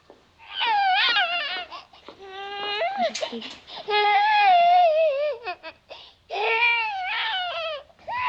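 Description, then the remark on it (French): A baby cries in loud, wailing bursts with high, wavering harmonic tones, broken by short gasping pauses between cries, unaccompanied by other voices. “Qu'est-ce que c'est que ça Qui est-ce Vous aider à reconnaître cette bébé de Madame d'honneur”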